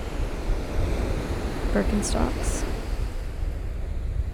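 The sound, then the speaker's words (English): Steady wash of waves on the pebbles of Chesil Beach, a continuous broad rushing roar with some wind, the sea not calm but not very choppy, while a person speaks briefly over it. “Chesil Beach”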